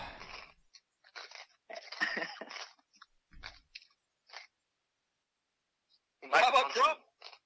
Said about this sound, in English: Am I crunching hard right now? Yeah, we were. That's why we aren't talking. Is because we just want to let you crunch for a bit.